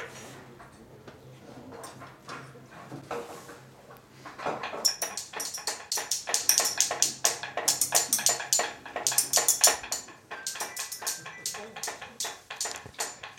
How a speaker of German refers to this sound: Dann hätten wir noch die Löffelklopfer, bitte.